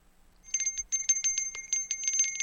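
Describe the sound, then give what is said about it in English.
A Salvation Army bell ringer's handbell rung rapidly and continuously, its bright metallic clangs repeating in a quick, uneven shake for a couple of seconds, fairly loud with no voices. “You heard Shelly ring the official Salvation Army bell”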